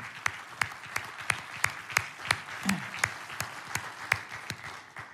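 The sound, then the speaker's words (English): An audience applauds steadily for several seconds to thank the national setting staff, a dense wash of clapping with sharp, evenly spaced claps standing out at a brisk, regular beat throughout. “And I just ask us to applaud and thank the, all of them for being here.”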